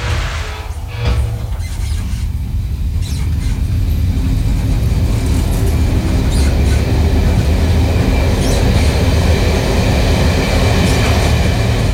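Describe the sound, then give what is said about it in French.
A high-speed TGV train gets underway: a deep rumbling roar that swells over the first couple of seconds, then holds loud and steady with faint metallic hiss and clatter on top, with no voices. “Tu m'expliques comment on démarre ce putain de TGV.”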